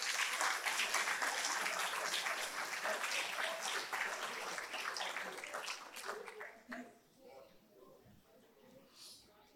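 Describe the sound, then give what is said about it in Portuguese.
A church audience applauds Jesus with joy, hands raised, in a dense, steady wash of clapping that holds for several seconds, then thins out and fades, leaving scattered claps and a few murmuring voices. “Se é verdade nisso, meus irmãos, levante as suas mãos e aplauda Jesus com alegria.”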